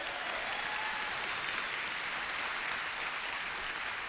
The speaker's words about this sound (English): And so I'm saying this to give you permission to go crazy and cheer because we've got a bunch of people getting baptized right now. So that's how we're going to finish our Sunday together.